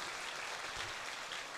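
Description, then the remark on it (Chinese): An audience applauds a man, an official being honored, steadily: a dense wash of many hands clapping at an even, fairly loud level with no voices standing out, continuing unbroken for the whole moment. “不要帮一起给我这个长官一个最热烈的这个有智慧的男人一个掌声。”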